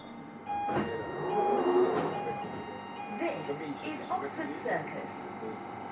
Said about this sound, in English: Change here for Bakerloo and Central Line. This is a Victoria Line train to Brixton.